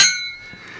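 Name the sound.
wine glasses clinking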